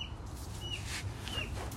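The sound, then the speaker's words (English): Chickens clucking and chirping, short bright calls popping up a few times over a steady outdoor background noise, with no one talking. “Girls, chickens, horses, sheep, whatever, dude.”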